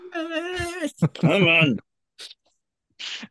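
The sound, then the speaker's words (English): A man lets out a drawn-out, anguished cry of frustration, two loud sustained wails, followed by a couple of faint short noises. “Uh, that was the cry of a man who's had a long week.”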